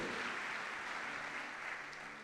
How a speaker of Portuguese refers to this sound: dá uma salva de palmas bem forte a Jesus, pela oportunidade que Ele tem nos dado porque Ele tem nos alcançado.